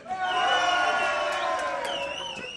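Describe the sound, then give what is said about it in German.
A crowd at a live radio show shouts and cheers together to vote for which kind of song is played, a loud, sustained burst of overlapping voices, some high whoops rising above the mass of yelling before it slowly fades. “Melden ist ganz schlecht, ihr müsst rufen, weil das ist Radio.”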